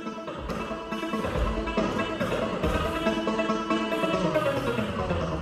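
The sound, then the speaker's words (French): Dense, droning tones ring continuously from a stretch machine, a large ring with strings stretched inside that are pulled to make sound, played by seniors testing it, with sharper twangy accents recurring roughly once a second. Loud, with no voices. “on peut entendre en ce moment la stretch machine de Patrice Moulet”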